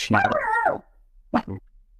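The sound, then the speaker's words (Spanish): The speaker's own dog gives a drawn-out, whining bark followed by two quick, sharp barks, moderately loud, with brief quiet between them. “Perdón, mi perro.”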